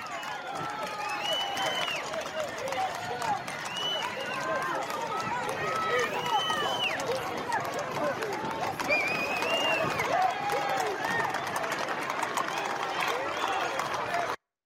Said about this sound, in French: Alors, est-ce qu'on peut voir une séquence justement où des policiers à cheval ont été euh, applaudis, encouragés par, par des assaillants, de manifestants Regardons.